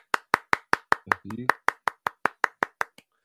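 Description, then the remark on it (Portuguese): A steady run of about fifteen sharp hand claps at a quick, even rhythm, with a short voiced sound breaking in briefly partway through. “Muitas palmas!”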